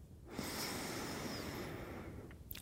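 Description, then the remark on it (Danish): A long, steady inhale drawn in through the nose during a guided breathing exercise, clearly audible, lasting a couple of seconds with a soft airy rush and no talking. “Men først lad os lige synkronisere vejrtrækningen, så lad os sammen tage en dyb indånding gennem næsen”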